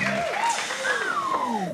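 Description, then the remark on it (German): Brief applause from a small group with rising and falling whoops and cheering voices over it, fairly loud throughout. “Ein Applaus.”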